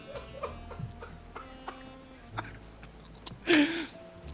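A single loud, harsh seagull squawk bursts out close by near the end, after several seconds of faint scattered clicks and soft background noise.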